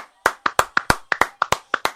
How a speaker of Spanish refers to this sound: Son las 8 de la tarde para aplaudir. ¡Hombre, ya, ya, ya! ¡Que ya son las 8!